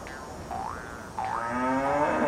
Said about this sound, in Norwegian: Kua har reist seg og begynner å hoppe rundt på jordet. Dette her Dette er galskap, altså. Også så mange rare hoppelyder den lager.